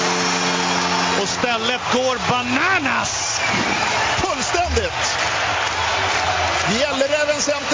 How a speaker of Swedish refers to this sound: jublar!